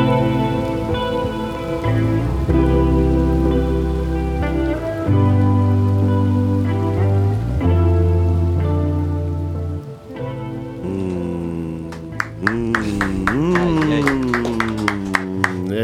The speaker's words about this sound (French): la DS, exclusivité, les pluie, avec le petit bruit de la pluie.